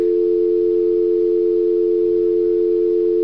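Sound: phone busy tone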